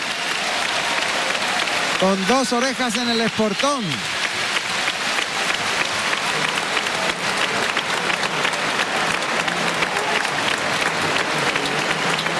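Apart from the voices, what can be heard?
bullring crowd ovation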